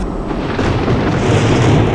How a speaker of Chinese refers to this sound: 啊！这雷打得真大呀！也开始下起了大雨，所有人都被这突如其来的雷雨吓着了。